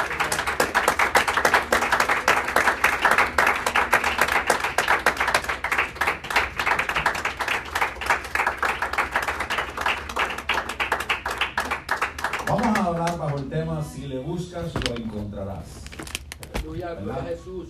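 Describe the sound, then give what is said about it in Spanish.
A church audience claps steadily for about twelve seconds as applause to the Lord Jesus, a dense, loud patter of many hands, before the applause fades and a man's voice begins speaking. “Le damos un aplauso al Señor Jesús en esta hora.”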